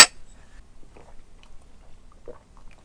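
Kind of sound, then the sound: household object, glasses clinking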